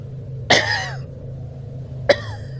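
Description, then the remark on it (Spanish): Two sharp coughs from someone outside, just behind a door, one near the start and a shorter one about a second and a half later, slightly muffled, over a steady low hum. “Lo que sea que tosía allá afuera, lo hizo ahora apenas detrás de la puerta.”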